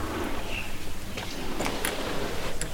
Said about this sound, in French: Et là, du coup, on est dans la grande salle. On entend un peu l'ambiance derrière des trucs qui se montent, euh, des marteaux qui tapent des clous, des machins. On est en train de monter ma scéno.